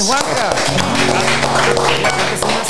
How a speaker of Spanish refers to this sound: Recibamos con un fuerte aplauso